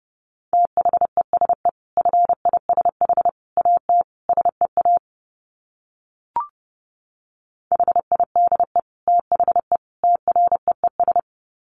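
Rapid Morse code in a single steady mid-pitched tone, keyed into quick dots and dashes at about 30 words per minute, with two bursts of sending split by a pause and a faint click.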